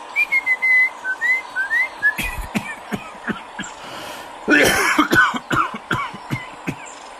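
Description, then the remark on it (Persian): A caged bird's bright, warbling, nightingale-like whistled notes trill for a couple of seconds, then break off, short of breath, into a run of harsh, raspy coughs, a dozen or so sharp bursts, fairly loud. “وسطاش نفس کم بود افتاد به صرفه”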